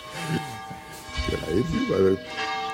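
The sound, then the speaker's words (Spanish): A church bell rings for three minutes at 8:33 with a steady, sustained metallic tone that hangs in the air throughout, while voices talk over it. “La 8 y 33, lleva 3 minutos tocando la campana.”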